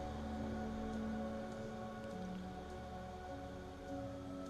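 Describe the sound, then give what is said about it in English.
Steady, gentle rain falls continuously outside with a soft hiss and faint scattered drop taps, fairly quiet, with a low tonal hum underneath and no voices. “It's raining outside.”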